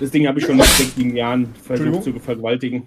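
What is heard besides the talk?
sneeze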